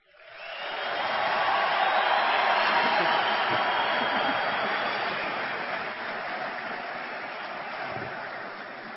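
A large crowd at a convention, first-time attendees applauding to show how they feel, bursts into sustained applause, a dense wash of clapping that swells quickly and holds steady for several seconds before easing off slightly.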